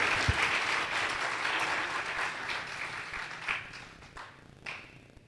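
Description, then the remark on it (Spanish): An audience applauds the Lord: a dense, steady wash of many hands clapping that gradually thins and fades toward the end, with a few scattered louder claps near the close. “Sí, aplaudo al Señor si usted entiende la palabra.”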